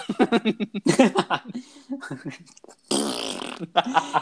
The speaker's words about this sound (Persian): ببین هر چی میخواهد کونه تنگت بگوز